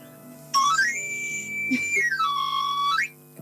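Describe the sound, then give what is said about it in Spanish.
A knife sharpener's flute whistle sweeps up to a bright, sustained high note, slides down to a lower held tone, then sweeps back up, loud and alone over a faint steady hum. “Yo iba, y tenía la flauta preparada para hacer el chiflido”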